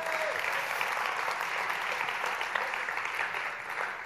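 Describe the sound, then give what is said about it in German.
Steady audience applause fills the whole stretch, many hands clapping in a dense, even patter at moderate volume with no voices breaking through. “Ein Applaus für das Leben, wir leben alle.”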